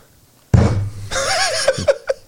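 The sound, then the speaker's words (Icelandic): A rubber stamp presses down with one firm, dull thunk, followed by a stretch of rustling noise and people's voices. “Ég hef ekki séð neitt nota stimpil lengi”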